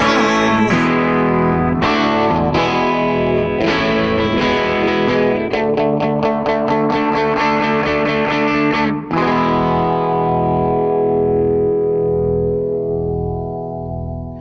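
A rock band recording plays loudly, with distorted guitar chords struck in a driving rhythm, then one final crashing chord that rings out and slowly fades away. No voices are heard.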